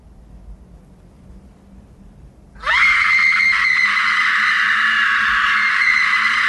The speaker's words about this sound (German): Und dann der typische Laura Palmer Schrei. Ich würde ihn so gern nachmachen. Das ist der beste Schrei auf der ganzen Welt.